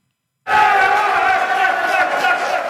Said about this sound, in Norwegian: Jubel på valgvaken til folkeaksjonen Nei til mer bompenger, FNB, valgnatten 2019. … ser tallene skyte til værs på storskjermen som viser valgsendingen til NRK.